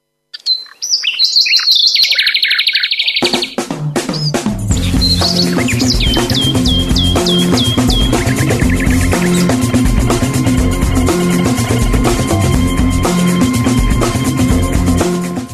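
High, birdlike whistling trills alone at first, then a loud rhythmic melody, the radio's melody 211, kicks in while short, repeated whistled chirps continue over the music, whistled live on the radio.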